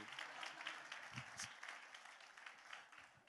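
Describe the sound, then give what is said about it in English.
A church audience applauds in a dense, steady wash of many overlapping hand claps that holds fairly even for the whole stretch, with a few sharper individual claps poking out. “come on give it up come on church show some love especially if you don't have to sit in the lobby put your hands together before i come and clap for you”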